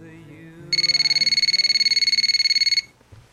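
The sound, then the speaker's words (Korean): A phone call rings out unanswered, the other person not picking up: a rapid, trilling electronic burst lasting about two seconds, loud, then cutting off; faint background murmur sits underneath. “언제부터인가 연락도 뜸하고 제가 연락해도 잔다고 받질 않더라고요.”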